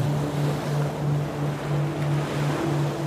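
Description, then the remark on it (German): A steady, loud roar of ocean waves crashing against the shore below a dune in a regular rhythm, with gentle swells in volume and a faint low hum underneath. No one is there and no one speaks. “In einem fein getakteten Rhythmus tosen seine Wellen an das Ufer.”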